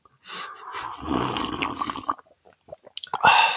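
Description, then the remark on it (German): Tea pours steadily into a cup for about two seconds, a broad splashing stream, followed by a few small drips and clinks before a brief second trickle, in the mountains. “Mal gucken, weil ich habe ein bisschen mehr Tee noch. Ich kann es auch ein bisschen höher machen, warte.”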